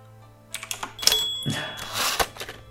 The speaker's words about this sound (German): Ich habe ja schon nur so eine Schreibmaschinentastatur, da muss ich ja auch schreiben.